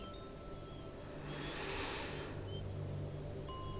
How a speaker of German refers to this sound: Nur ganzes feines und langsames Schnaufen kann man noch hören.